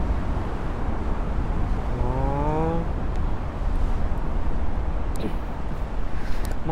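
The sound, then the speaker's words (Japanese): A passenger boat built like a yakatabune roars loudly and steadily at great speed along a river by Nihonbashi in Tokyo, a dense rushing engine drone that barely changes, with a short rising tonal whine partway through and faint indistinct voices underneath. “屋形船みたいな感じの作りになってるけどお客乗せる思いっきりエンジンの 轟音立ててすごいスピードで渡っていく船がこっちに向かってみんな手を振ってきたから手を振ったりして。”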